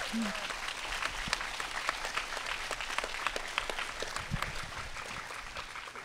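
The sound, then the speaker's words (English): An audience applauds steadily for several seconds, giving a woman another round of applause, a dense wash of many hands clapping at a fairly even level, with scattered louder claps standing out. “Can we give her another round of applause?”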